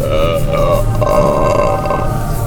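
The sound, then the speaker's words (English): A long, loud belch rumbles on for over two seconds, deep and sustained with a rough, grunting texture, heard on its own without any talking. “rating them with those suds ratings plus our signature belching sounds”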